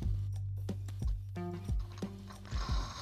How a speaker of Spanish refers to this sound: Escuchamos cómo su micrófono pega con su con su cabeza.